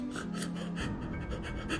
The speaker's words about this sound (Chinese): 后来，女人凄惨的哭喊声，小孩喘不过来气的急促呼吸声，